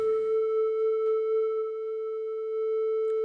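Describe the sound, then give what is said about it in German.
A steady synthesizer tone holds a single pitch, concert A, for the whole stretch, clear and fairly loud, with faint upper overtones and a soft reverberant tail behind it. “Der hat geschwankt wegen des, wegen ja. der, äh, wegen ja. des Halls, weil der Hall oder Delay drauf war.”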